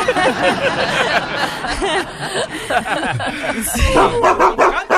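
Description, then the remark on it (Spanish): A dog barks and yips repeatedly in quick, excited bursts, loud, with a few whimpering notes mixed in, while people talk over it. “amarras a tu perro, te lo enveneno.”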